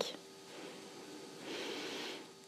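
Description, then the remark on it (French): A slow, deep yoga breath (Ujjayi or Nadi Shodhana breathing) drawn in over a count of five, a soft airy hiss that swells gradually and then fades, heard alone without any talking. “Donc c'est-à-dire la respiration où vous inspirez lentement et vous expirez lentement sur 5 temps, c'est-à-dire on inspire sur 5”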